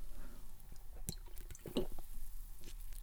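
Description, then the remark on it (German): Someone takes a quick sip of a drink: a couple of soft wet clicks and a brief slurping gulp, with no talking. “Jetzt muss ich kurz einen Schluck trinken, Entschuldigung.”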